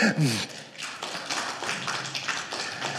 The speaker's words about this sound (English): Give yourself an applause for that because that is wonderful. Go ahead, you can do it. I know we're Baptists. Clap your hands. It's okay.